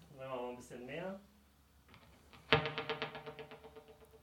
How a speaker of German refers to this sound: Das heißt, ich mache jetzt mal den zweiten und den vierten an. Und dann sind die halt sozusagen beide am Start. Oder alle vier. So, und dann kann man sich noch äh, aussuchen, wie viele Echos es geben soll.